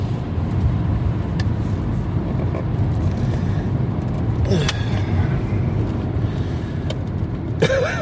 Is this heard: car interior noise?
yes